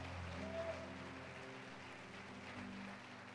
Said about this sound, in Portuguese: Se você crê nisso, dê um brado de vitória aqui, aplauda o Senhor nesse lugar. Adore!